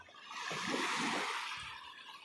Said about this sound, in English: Um, so I come down here and just kind of listen to the waves.